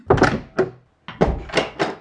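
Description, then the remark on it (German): Heavy knocks land on a wooden door, a few firm thuds, then a short pause and another quick series of blows. Loud, with no voices. “Es klopft laut an der Tür.”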